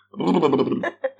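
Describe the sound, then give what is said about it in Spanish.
Someone imitates with their mouth a vaginal air release, air pushed toward the front that hits the labia: a loud, buzzy sputter lasting under a second, followed by a brief second puff of air. “Bueno, cuando las mujeres no hacemos eso, muchas veces ese aire se viene hacia la parte de adelante y, bueno, choca con nuestros labios.”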